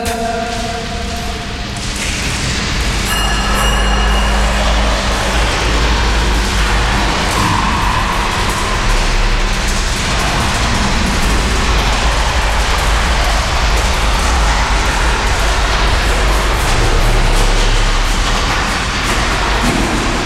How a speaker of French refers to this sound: On a juste lancé une bille pour enregistrer le son.